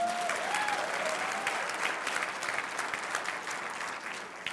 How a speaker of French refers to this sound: Est-ce qu'il y a des gens qui sont dans la joie ce matin? Vous savez, vous avez le droit d'applaudir. Allez-y, gâtez-vous.